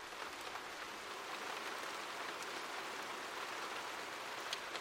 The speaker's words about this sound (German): Auf einmal merken wir, dass Regentropfen fallen.